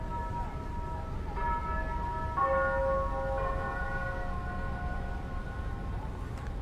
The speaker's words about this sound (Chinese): 每天，外滩的东方红钟声照常响起。希望这些声音中的那个上海可以慢慢回来，亦或者可以消失的慢一些。